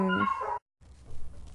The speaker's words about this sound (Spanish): Oigan, perdón que se escuche el corte ahí probablemente, pero es que no sé si escucharon que estaban ladrando los perros y pues qué poco profesional de mi parte.